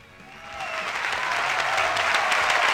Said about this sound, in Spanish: ¿tenés ahí unos aplausos para recibirlo?